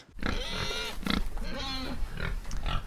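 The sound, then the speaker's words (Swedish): A pig grunts and squeals in a rapid, continuous run of nasal snorts for a few seconds, fairly loud, with no talking. “Och det grisljudet markerar att vi är tillbaka till Berättar-Arman från fem timmars inspelningen.”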